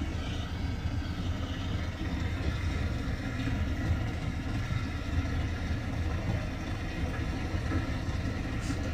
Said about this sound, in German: So Leute, ähm, ich bin hier gerade am Wassertank auftanken, weil ja, wir brauchen halt Wasser. Und ja, ich mache jetzt kurz ASMR.